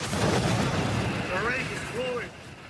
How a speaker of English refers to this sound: I jumped out of the bed, and then there was a thumping sound that consecutively got much faster. And with each thump, I felt the rig actually shake. Then there was an initial boom. The lights went out. And there was a huge explosion.